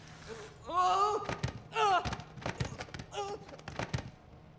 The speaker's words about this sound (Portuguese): Mas Júlio, tomado pela vertigem, escorrega numa poça de sangue fresco diante da porta do porão e rola escada abaixo.